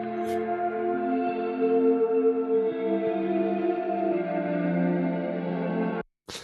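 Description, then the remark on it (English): A guitar's sustained, washed-out tone with the delay and reverb wet signal soloed, drenched in delay and reverb, with a faint click near the start and a sharper, echoing delayed click just after the tone cuts off near the end. “So uh, let's solo delay reverb wet. And you hear hear the, the click, the delayed click.”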